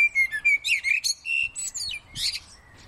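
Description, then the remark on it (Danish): A common blackbird sings a flowing, varied song of clear fluting whistles and quick chirpy trills, fairly loud, with no voices. “det er lyden af en solsort.”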